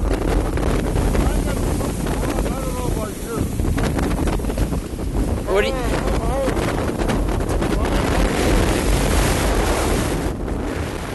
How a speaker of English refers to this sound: but the wind is so loud that you can barely hear yourself. We end up screaming at each other like we're having an argument